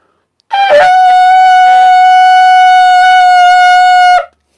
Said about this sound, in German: dieses Schofahorn wird in der Lutherbibel, da wo Schofar steht, immer mit Posaune übersetzt